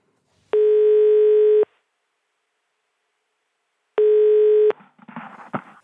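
Two steady electronic ringback tones from an outgoing phone call to a swan expert at a natural history museum, each about a second long with a long silent gap between, the second cut short by a rustling click as the line is picked up.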